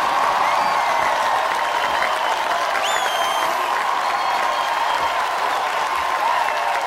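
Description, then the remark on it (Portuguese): A crowd breaks into steady, sustained applause for Kwame Ture, loud, with a few cheers and a whistle rising through the clapping for several seconds. “Deem uma salva de palmas, meu povo, pro nosso Kwame Ture!”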